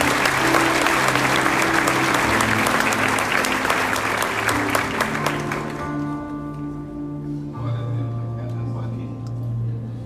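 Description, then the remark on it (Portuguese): An audience breaks into sustained applause for the Lord Jesus after a Bible verse is read, dense and loud for about six seconds, then thins out as sustained organ or keyboard tones carry on underneath. “Você pode aplaudir o Senhor Jesus por essa palavra?”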